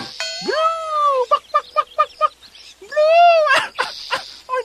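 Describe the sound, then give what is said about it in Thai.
A human voice performs a jackal trying to imitate a lion's roar from a cliff ledge, sounding like a dog howl: a rising, wavering wail, then a run of short yelping barks, another long howl, and a few final yips, loud with no talking. “ทำไมมันเหมือนหมาหอนจังวะเนี่ยแสบคอจัง”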